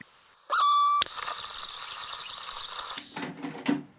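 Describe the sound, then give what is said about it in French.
A brief squealing tone, then a sharp click as a cassette player mechanism engages, followed by steady whirring hiss and a few rattling mechanical clunks as an old cassette recording plays and crackles slightly, fairly loud with no voices. “Voilà, ça, c'est le bruit de déclenchement de l'appareil à cassette.”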